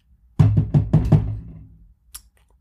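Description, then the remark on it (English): Five quick, evenly spaced knocks on a big, heavy door, fairly loud, each with a deep wooden boom that rings out briefly before fading, followed by a faint small tap. “That's me knocking on your door.”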